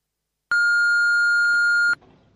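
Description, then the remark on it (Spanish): A single long, steady electronic beep from an answering machine, loud and clean for about a second and a half, cutting off abruptly into faint room noise as the message begins. “La creadora nos ha dejado un mensaje en el contestador automático del briefing, así que vamos a escucharlo”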